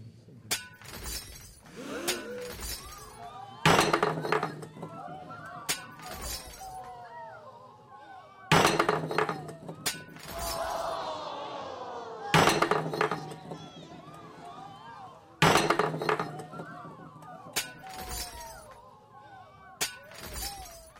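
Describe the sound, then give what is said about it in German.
Plates and glasses smash one after another in a series of loud crashes at uneven intervals, each followed by scattered tinkling and clattering shards. “Puh, wie viele Teller und wie viele Gläser hat er denn jetzt geschrottet?”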